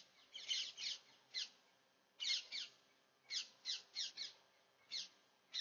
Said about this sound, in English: And all I just need to do is, oh, listen to those birds.